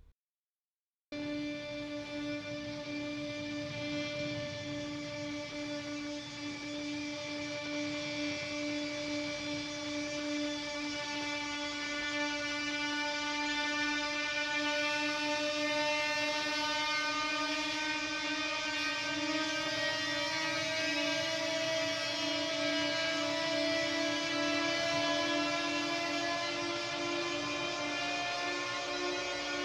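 A film score passage of sustained, layered tones that glide upward very slowly and continuously, forming a loud, steady, droning swell for about half a minute with no voices.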